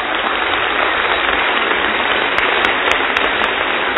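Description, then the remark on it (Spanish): Loud, sustained applause from an audience of young people at a preaching event, a dense, steady crackle of many hands clapping at once, holding at a constant level for the whole stretch with no voices on top. “A ver, un aplauso así, pero de a deber.”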